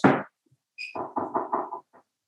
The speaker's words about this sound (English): Um, pause this for one second. There's someone knocking at my door.